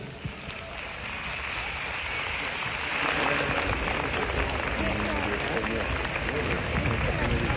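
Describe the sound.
A large audience applauds steadily, a dense wash of many hands clapping that swells louder partway through and stays strong to the end, with a few indistinct voices mixed in.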